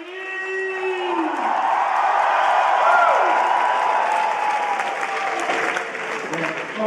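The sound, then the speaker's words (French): A large crowd at a 2018 screening of the film The Room at the Grand Rex in Paris applauds loudly and steadily for several seconds, with scattered whoops and cheering voices rising above the dense wash of clapping. “Et 15 ans après sa sortie, le film attire toujours les foules, comme lors de sa projection au Grand Rex en 2018.”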